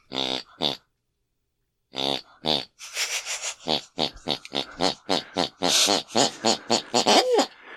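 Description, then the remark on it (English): A woman snores in the room next door, with loud snorts and grunts, starting with a few slow, spaced pulses, then quickening into a steady accelerating rhythm of rapid snores that follows a film theme tune she saw on television. “My mother snores in relation to the last thing she saw on the television.”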